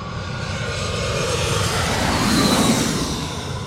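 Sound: airplane flying low overhead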